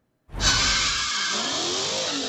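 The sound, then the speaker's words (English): Car tires squeal loudly and steadily for about two seconds during a street sideshow in the Kansas City metro, starting abruptly with a brief burst of engine rumble underneath, with no one talking. “By now, it's a sight and sound many Kansas Cityans are all too familiar with. Sideshows taking place all across the KC Metro.”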